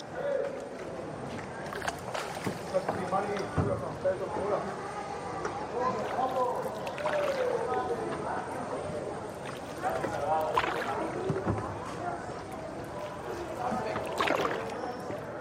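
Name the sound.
water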